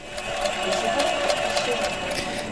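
A plasma donation apheresis machine pumps with a steady mechanical whir and quick, regular pulsing clicks as the donor's blood runs through small tubes to be filtered for plasma and returned in regular cycles, running continuously with no voices.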